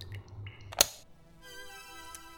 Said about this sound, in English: is a concert played entirely through mycelial fungal networks.